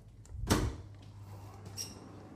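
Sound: door opening and closing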